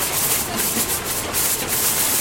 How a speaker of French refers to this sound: Une fois passé sur ces grosses machines qui font ce bruit-là,